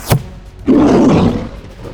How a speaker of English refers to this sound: The uh, the werebear lets out a another one of those deep guttural roars as your arrow pierces into its leg.